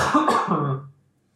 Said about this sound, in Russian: Сейчас он покашлял.